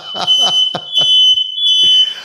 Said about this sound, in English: I'm praying so hot in here that the fire alarms are going off. right in the middle of the prayer. My God, the fire alarms have kicked off in the house.